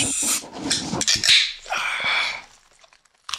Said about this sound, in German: Ähm, okay, ich habe hier eine Cola-Dose mhm. und die mache ich jetzt auf. Und äh, hier? ASMR.